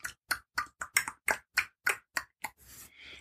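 A rapid, steady series of about ten tongue clicks, made by pressing the tongue up against the roof of the mouth, sharp and hollow like little pops, followed by a brief soft breathy rush at the end.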